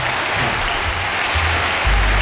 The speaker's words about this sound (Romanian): Încă o dată aplauze pentru Șerban Nicolae Da? Și uh, încă o dată aplauze pentru Mircea Joană din start